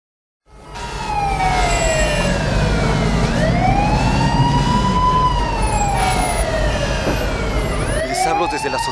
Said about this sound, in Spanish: Las campanas que oyen ustedes son para avisar a la población que debe evacuar la ciudad antes de la llegada de los marcianos.